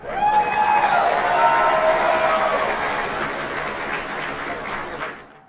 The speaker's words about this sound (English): as always, I'm looking forward to new people being on J360 Jams. So let's go on ahead and clap them in.